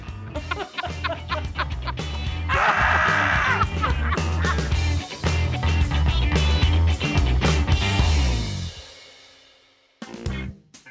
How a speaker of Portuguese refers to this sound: O berro dos bodes é engraçado. O berro dos bodes. É engraçado. Os bodes. Ah! Pode encerrar com esse berro do bode que.